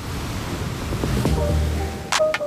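Ocean surf rushes in a steady, broad wash of noise, waves breaking and swelling throughout the short stretch, moderately loud with no voices.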